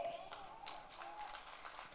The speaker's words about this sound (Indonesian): Oh kalau mau tepuk tangan jangan separuh-separuh sudah.